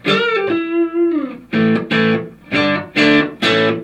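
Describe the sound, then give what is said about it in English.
An electric guitar through a JHS Morning Glory overdrive pedal plays a sustained, bending lead note, then hits five punchy, evenly spaced chord stabs, loud with no voices. “Um, over here I've, I've been using the JHS Morning Glory, which I'm really liking these days.”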